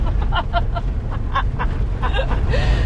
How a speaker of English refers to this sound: we're on the country roads with squeaky water bottles.